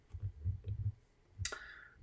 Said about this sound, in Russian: И тут, по-моему, есть тег эмоциональный коврик. Ну-ка, если по нему кликнуть. А, только это видео откроется.